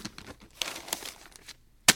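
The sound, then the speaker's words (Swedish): Newspaper pages being flipped: a run of dry, papery rustles and crinkles, then a brief pause and one sharp, crisp snap of paper at the end. No voices. “När man bläddrar i Dagens Industri på morgonen och läser om att ett bolag får nya ägare”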